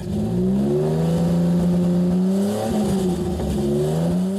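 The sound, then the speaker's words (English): A small 2-liter dual overhead cam straight-six car engine, producing about 150 horsepower, revs up and settles, its steady harmonic drone swelling in pitch a couple of times, loud with no voices. “Uh, kind of in Japanese fashion, it was a pretty small engine specifically a 2 liter dual overhead cam, straight 6.”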